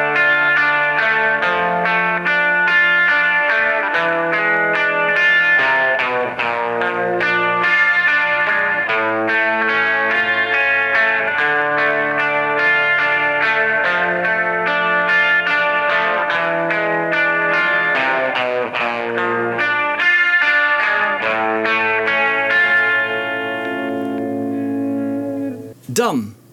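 A distorted electric guitar plays a dense, repeating riff at a steady, loud level for about twenty-five seconds, then fades slightly and ends with a brief sharp noise.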